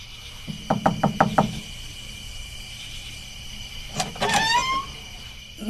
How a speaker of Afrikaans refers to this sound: Ja, dis nogal meneer klop nie sommer saans aan my deur nie.